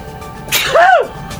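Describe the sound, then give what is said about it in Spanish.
A single loud sneeze, likely a voice imitating one: a sharp breathy burst followed by a brief rising-and-falling voiced cry, forceful. “Sí, yo tengo algún, unos vecinos que estornudan y se oye de lejos también.”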